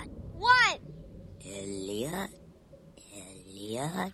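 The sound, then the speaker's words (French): A raspy, otherworldly creature voice, the voice of E.T., made by American sound designer Ben Burt, makes three croaking utterances with rising and falling pitch, fairly loud, separated by brief pauses, with breathy hiss layered over each call. “Ah bah ça c'est le son d'ITI.”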